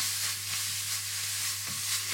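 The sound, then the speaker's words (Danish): Steady sizzling of lemon juice bubbling down in a hot pan, a continuous bright hiss that stays level throughout, with a faint low hum underneath and no talking. “Og imens at citrussaften den koger ind i, i, øh, i emnet her, så kommer jeg lige en, en klat creme fraiche på.”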